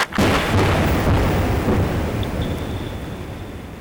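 A single powerful underwater airgun (sound cannon) blast from a seismic survey searching for oil at depth: a sudden, extremely loud deep boom that rolls into a long, heavy rumble, slowly fading over several seconds with no voices present.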